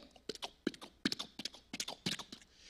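Horse hooves clip-clop in a quick, uneven rhythm, a dozen or so sharp knocks with hollow thuds, fairly close and clear, with no voices over them.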